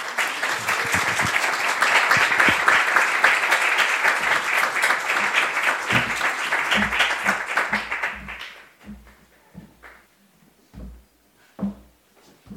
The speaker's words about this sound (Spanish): Pido también un fuerte aplauso para ella.